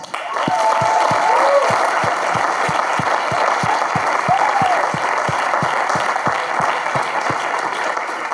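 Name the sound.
audience applause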